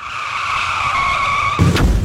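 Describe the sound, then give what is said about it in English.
A car crash sound effect: a long, steady tire screech rings out for over a second, then cuts into a loud crunching impact as a car crashes, with a sharp bang near the end. “Oh, just like the start of the segment, a car crash.”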